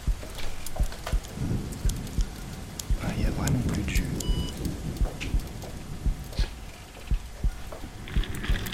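Steady rain patters down with scattered sharp drips and taps, while a deep rolling rumble of thunder swells in the middle of the storm and fades back into the downpour.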